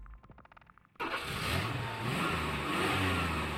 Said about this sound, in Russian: Двигатель завелся, фыркнув пару раз, и Виталий помчался на перегонки со временем.